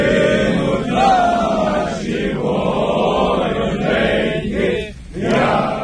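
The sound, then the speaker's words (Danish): Ukrainian soldiers returned home from Russia in a prisoner exchange sing the Ukrainian national anthem together in front of the buses that brought them, holding Ukrainian flags, in loud, sustained unison, their voices blending into a dense, continuous choral sound with a brief dip near the end before the singing swells again. “Det her det er altså øh, de ukrainske mænd, som øh, synger nationalsangen foran busserne, når de, øh, som de kom hjem i.”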